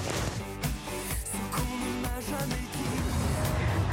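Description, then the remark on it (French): Steady interior rumble of a large Jaguar car on the road approaching Porte d'Auteuil, a constant low drone with music-like tones layered on top, fairly loud and unbroken throughout. “C'est pas ma petite Jaguar, c'est une grosse Jaguar.”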